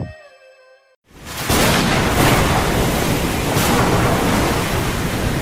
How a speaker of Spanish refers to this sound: tormenta del Océano Atlántico, rayos, truenos y centellas.